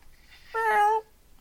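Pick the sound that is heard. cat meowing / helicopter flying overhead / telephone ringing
cat meowing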